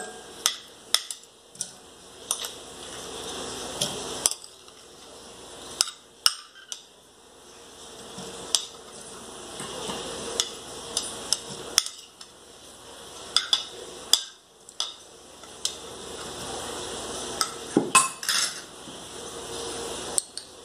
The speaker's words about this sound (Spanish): colocamos hielo colocamos los cubos de, la fruta